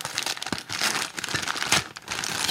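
Continuous crinkling and rustling of wrapping paper as a gift is unwrapped, close and fairly loud, with irregular bursts of crumpling and brief tearing sounds throughout.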